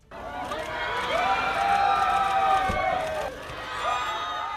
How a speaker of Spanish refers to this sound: Ana de Armas ha llegado así, la protagonista de Blonde, el biopic de Marilyn Monroe, la película sorpresa de esta edición número 70. Como escuchan, la decena de seguidores, decenas de seguidores han aplaudido su llegada